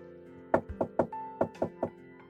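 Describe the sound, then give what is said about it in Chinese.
A key works a front door lock and the door opens as someone returns home: about six sharp, fairly loud clicks and knocks in an uneven rhythm over a steady low hum, with no voices. “小白兔听到了大白兔回来的声音，听到了钥匙开门的声音，小白兔悄悄的躲了起来。”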